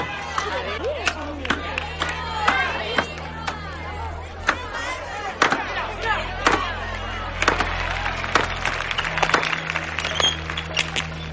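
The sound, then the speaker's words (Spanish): Axes strike logs in sharp, hard thuds at an irregular pace as log cutters compete in a town square, with the steady murmur of a chattering crowd underneath throughout. “llegan a la plaza cuando los cortadores de troncos comienzan su competición.”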